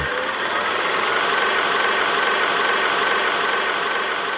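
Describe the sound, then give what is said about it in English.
A kinetoscope film projector runs, showing the film Renfield, with a steady mechanical whir and a fast, regular clatter of ticks, loud and continuous for the whole stretch with no voices. “So let's pull out the kinetoscope and take a look at the new film, Renfield.”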